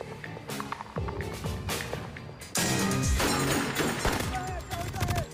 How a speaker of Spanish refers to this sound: Un disturbio violento en Camden, Nueva Jersey, termina en unos disparos a un oficial de policía. ¡Disparos! ¡Oficial caído!